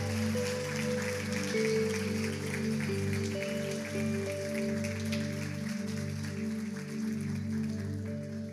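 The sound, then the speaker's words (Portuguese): Steady crowd applause given to God in the evening fills the space, a dense, continuous patter of many hands clapping over sustained, droning keyboard chords that hold underneath for the whole stretch. “Você pode dar uma linda salva de palmas ao nosso Deus nessa noite?”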